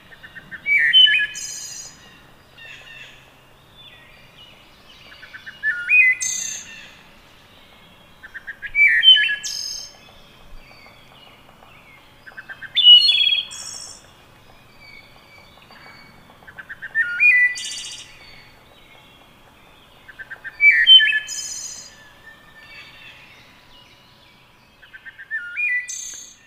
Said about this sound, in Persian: به این قابلیت خفن دوخانی میگن دوخانی شبیه دوخانیات شد که پرنده میتونه همزمان دو تا صدای جداگانه از خودش در بیاره مثل پرنده به اسم وود تراش که از خانواده توکا هاست بشنویم صدای این بزرگوار رو